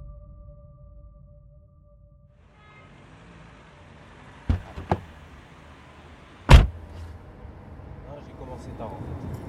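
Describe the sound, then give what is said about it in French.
A taxi's engine idles with a low rumble and road hiss, two quick clicks, then a loud door slam before the engine keeps droning steadily. “On prend un taxi, à l'intérieur on se tient la main et on se regarde comme des adolescents”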